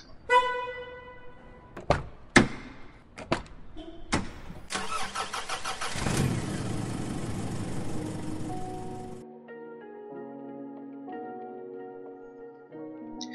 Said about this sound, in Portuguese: Eu preciso desabafar, espera aí que eu só vou ligar o meu carro e a gente vai conversar, beleza?